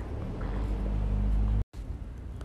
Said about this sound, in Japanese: まあちょっと今日はねこんな深い話を外でするっていうそして車の雑音がうるさくてごめんなさいね